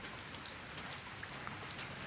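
Steady rain falls throughout, a soft, even hiss with scattered drops ticking against a surface. It sounds fairly quiet and continuous, with no voices.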